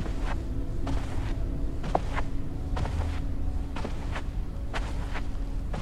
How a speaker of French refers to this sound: Vos pas sont doux et onctueux sur un sol tapissé D'épaisse moquette.